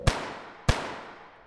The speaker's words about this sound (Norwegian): Paret går nedover Sveaveggen, og 11 minutter senere, klokken 23.21, avfyres to skudd av en skytter.